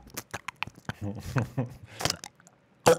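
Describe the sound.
A voice imitates loud open-mouth chewing at a table of six people: a run of wet smacks, clicks and squishy mouth noises, mixed with some voiced murmuring, ending in one sharp smack.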